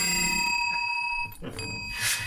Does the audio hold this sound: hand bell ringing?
yes